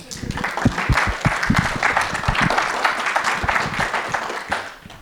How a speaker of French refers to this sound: Ça s'applaudit, ça, non